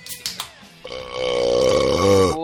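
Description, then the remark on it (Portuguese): A long, loud, drawn-out burp with a rough, croaking tone, preceded by a few short clicks and gulps. “À vontade, o senhor é de casa, pode botar o pé em cima da mesa, pegar a cerveja na geladeira e arrotar, não tem problema não.”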